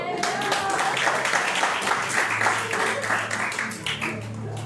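An audience applauds steadily, a dense wash of many hands clapping at a fairly loud, even level, with some crowd murmur and cheering mixed in throughout.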